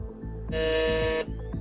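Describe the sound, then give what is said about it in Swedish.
A quiz buzzer sounds once, signalling that all contestants have buzzed in, a harsh, steady electronic drone lasting under a second, loud over a low rhythmic background bed of music that continues before and after it. “Det här behagliga eh. ljudet betyder att alla har tryckt in sig”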